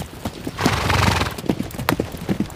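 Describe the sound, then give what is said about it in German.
Hooves clip-clop in a steady rhythm as horses set off on a ride, while a horse lets out a loud, drawn-out whinny partway through, then the hoofbeats carry on. “Also auf keinen Fall schreien, sonst geht euer Pferd mit euch durch.”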